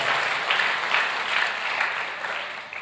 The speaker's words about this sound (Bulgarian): О, ако искаш да дадеш слава на Бога, ръкопляскай като че наистина го вярваш. Дай му слава като че наистина го вярваш.